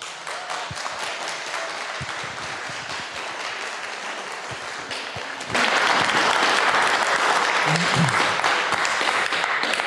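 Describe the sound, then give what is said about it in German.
A crowd in Kempten in the Allgäu applauds steadily for about ten seconds to welcome the speakers of a talk, the dense clapping swelling louder and fuller halfway through, with faint voices and a few cheers mixed into the roar. “Aber jetzt erstmal einen großen Applaus.”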